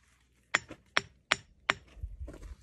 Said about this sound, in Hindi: normally किसी बड़े से पत्थर को एक हथौड़े से अगर टैप किया जाए तो इस तरह की आवाज़ आती है